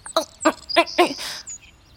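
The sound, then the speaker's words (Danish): Birds chirp in a forest beside a clear forest lake among tall conifer trees: four short, bright chirps in a steady rhythm, fairly loud, followed by a thin high whistle that fades out. No talking is heard. “Fuglene kvidrede, og en blank skovsø ulmede lige der ved siden af mig, mellem de høje nåletræer.”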